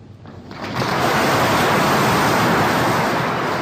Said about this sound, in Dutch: Flink applaus.